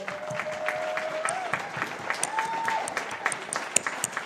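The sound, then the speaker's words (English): An audience claps steadily for a few seconds to thank the Connect group leaders, a dense patter of many hands with scattered sharper claps, while a couple of sustained tones, like whistles or cheers, ring briefly over it. “So, everybody, let's just give them all a clap, everybody.”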